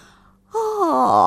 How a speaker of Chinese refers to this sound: 他打了个哈欠，懒洋洋的坐了起来，慢吞吞的穿上了衣服。